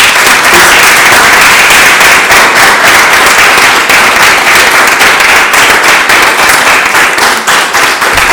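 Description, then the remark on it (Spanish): Loud, sustained applause from a large crowd for the woman in charge of an exhibition on Argentine comics published in France, dense crackling claps filling the whole stretch at an even intensity with no voices over it. “que es la encargada, para quien pide un aplauso gigante porque es una genia esta mujer.”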